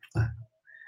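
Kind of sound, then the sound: human body sound, sneeze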